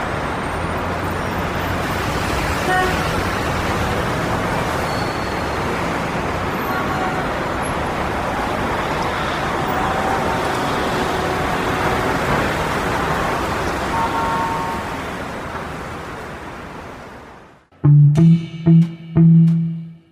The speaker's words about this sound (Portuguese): ruas estavam cheias. Eram carros, ciclistas, pedestres e o mundo todo a milhão.